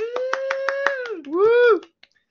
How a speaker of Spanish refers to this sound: Fuerte aplauso.